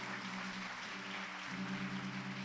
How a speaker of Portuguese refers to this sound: Dê uma salva de palmas a Jesus.